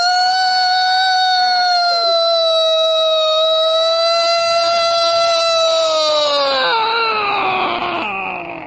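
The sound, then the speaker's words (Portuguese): The siren of Olímpia wails in one long, sustained tone that holds steady, then slides downward near the end, rich with harmonics and heard alone without any talking. “a Sirene de Olímpia, besta!”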